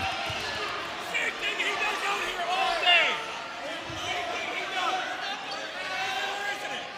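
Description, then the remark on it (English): A busy gym full of echoing noise during a March basketball game in Ubly, with squeaking sneakers, a ball bouncing on the hardwood and a crowd murmuring, plus indistinct voices throughout. “Enjoy the sounds of March basketball, folks.”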